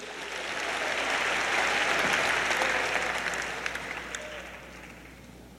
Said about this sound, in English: Clap your hands as you're seated.